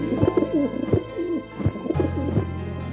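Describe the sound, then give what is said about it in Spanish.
A dove coos in a series of soft, throaty warbling calls, repeated several times over a few seconds, clear with no one talking. “Noé esperó otros siete días y volvió a soltar la paloma.”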